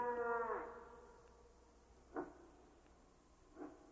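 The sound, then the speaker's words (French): A female moose calls with one drawn-out, nasal moan, followed by two shorter, softer grunts spaced over the next few seconds, heard alone against quiet background. “Ishmous, la femelle, avait déjà lancé son premier appel.”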